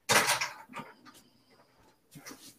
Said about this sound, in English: he just had to close them doors, real, make sure those doors are closed real quick, because that's where he keeps the fucking Ben Roethlisberger shrine.